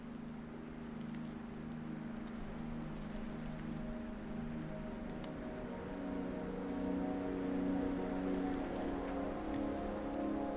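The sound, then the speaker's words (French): Steady outdoor valley background ambience: a continuous hiss like rain or rushing water, with a low droning hum underneath that swells slightly toward the end. No voices. “bruit de fond de la vallée va vous surprendre, car je suis accompagné.”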